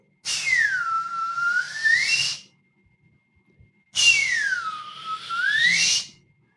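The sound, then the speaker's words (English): A man whistles two loud, bird-like phrases, each swooping down in pitch and then climbing back up, with a short pause between them and no talking. “And my old man whistled, and he's got this distinct whistle. It's like a like a bird song.”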